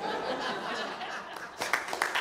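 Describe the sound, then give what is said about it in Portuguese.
An audience claps steadily in a dense, crackling wash of applause, with a few sharper bursts near the end and some scattered laughter mixed in. “Não, não, não, não aplaude.”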